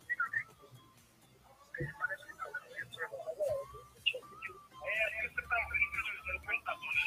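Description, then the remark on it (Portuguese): Audio feedback on a phone line: warbling, whistle-like squeals rise and fall repeatedly over about seven seconds, mixed with muffled, garbled voices, growing louder and denser toward the end. “parece tá que está dando um retorno”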